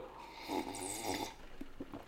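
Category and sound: human body sound, person drinking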